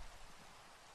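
Soft, steady rainfall hisses evenly throughout, a faint continuous wash with no distinct drops standing out and no voices.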